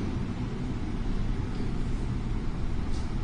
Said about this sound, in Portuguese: o avião está aí, pessoal. Deixa só passar o avião para ela. Vocês estão ouvindo o avião também?